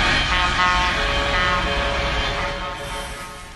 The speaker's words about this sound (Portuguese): Em protesto, motoristas de caminhões fizeram um buzinaço por ruas e avenidas de Belo Horizonte.